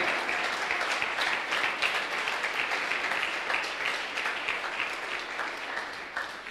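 A large crowd applauds steadily in praise of the Lord, dense clapping filling the space at a strong, even level before easing slightly toward the end.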